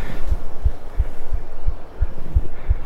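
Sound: human heartbeat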